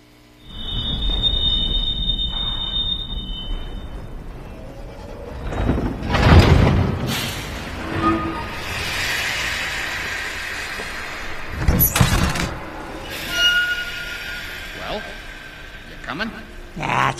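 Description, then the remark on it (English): In a clip from the film The Polar Express, the train's wheels screech against the rails in a high, sustained squeal at the start, then heavy rumbling and loud metallic clanks and bursts follow, prominent, with voices mixed underneath. “And Billy's a kid who has the opportunity to board the train as well.”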